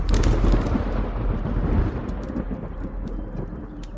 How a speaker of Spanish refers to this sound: Era una tarde nublada por una tormenta amenazante en el cielo, como la de hoy, pero en la hermosa isla de Pátzcuaro, Zacapu Hamukutin, Pátzcuaro, donde están los dioses en la entrada a la oscuridad.